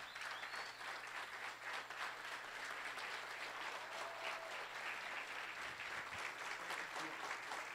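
A crowd applauds steadily, many hands clapping in a dense, continuous wash of sound that stays loud and even throughout, with a low steady hum underneath.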